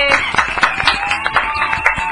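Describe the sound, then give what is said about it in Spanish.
Steady applause from a group, a dense patter of many hands clapping at once with sharper individual claps popping out, loud and continuous for about two seconds. “Un aplauso para la lucha contra la osteoporosis y para todos los chefs del mundo mundial.”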